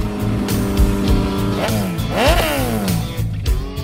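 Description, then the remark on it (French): A loud motorcycle engine runs, its pitch climbing and falling as the throttle is worked, with steady revving and a brief rising whine near the middle; it is Michel Barrette's motorcycle, rigged so its engine can be stopped remotely. “À distance, quand ça nous arrange, le moteur s'arrête.”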